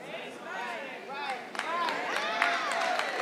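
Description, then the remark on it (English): A handful of scattered claps, about five, ring out over a low murmur of many voices, the sharp hits sparse and irregular rather than building into full applause. “I know it's five claps.”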